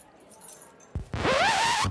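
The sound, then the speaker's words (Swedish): A coat is pulled on: a sharp rustle and thump, then a long, loud zipping swish lasting under a second, with a faint jangle of a very big bunch of keys mixed in, as the story character Nyklis puts on a coat to go out into the foyer. “Då var det lätt att ta den stora, stora nyckelknippan, på med en rock och sen gå ut i foajén.”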